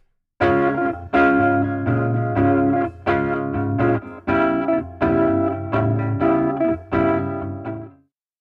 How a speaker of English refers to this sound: All right, here's no comb filtering. And here's the same thing with some comb filtering.